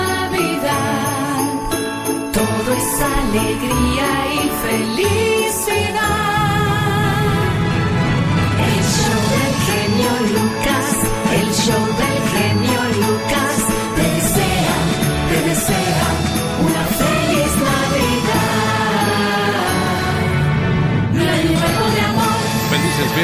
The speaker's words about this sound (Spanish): Suenan campanadas de la nada.